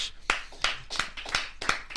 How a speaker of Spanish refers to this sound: así que yo creo que es justo y necesario que recibamos a Dímelo Champ con un aplauso a la bestia Walter Hodge.